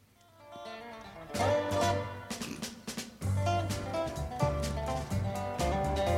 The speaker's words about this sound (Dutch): Dan eh, gaan we nu even naar wat muziek luisteren.